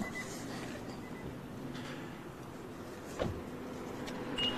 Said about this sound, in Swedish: Hitta en fläkt som hörs. Det är det enda. Ja. Ja, där är en, en luftvärmepump som, som har hand om, om både värmen och, och vad heter det, att man får kall luft in. Att det är ja. kanske den som surrar på där som bäst.